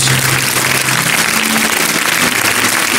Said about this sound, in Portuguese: Vamos aplaudir mais o Senhor Jesus.